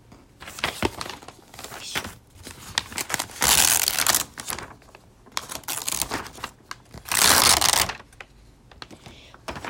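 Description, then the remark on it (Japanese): Pages of a paper advertising flyer for U-Can lifelong-learning courses, delivered to a home mailbox, are turned, with two loud, full rustling swishes amid softer crinkling and tapping handling noises, without talk. “ね、このめくる瞬間ってむっちゃいい音しますよねこれ”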